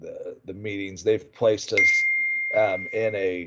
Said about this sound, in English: sorry for my phone going off there